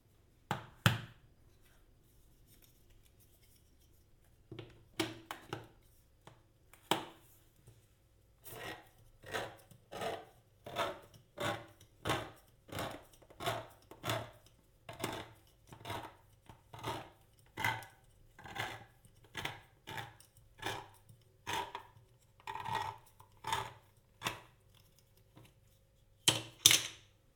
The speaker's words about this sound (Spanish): Ahora vamos a proceder a abrir la lata, extraeremos los muslos, guardaremos la grasa que contiene la lata para otros usos y los muslos los limpiaremos de piel y hueso y cortaremos la carne a tijera menudita.